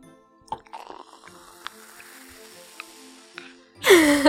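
Champagne is poured into glasses with a soft fizzing and gurgling, a few tiny clinks along the way, ending in a louder, bright rush of liquid and glass.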